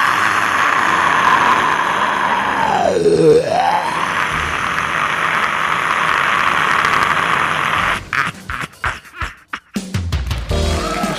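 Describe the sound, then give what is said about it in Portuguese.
A jet airplane's turbines roar steadily and loudly during takeoff at Afonso Pena airport in São José dos Pinhais, Greater Curitiba, Brazil, with a whining tone that dips and rises again partway through, then the roar turns choppy and broken toward the end. “Parapousos e decolagem, rapaz! É turbina, né? Turbina, cara, vai.”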